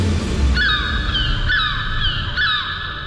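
Seagulls cry three times at roughly one-second intervals, each call a shrill, drawn-out squawk that falls in pitch, heard over a steady low rumble in the background.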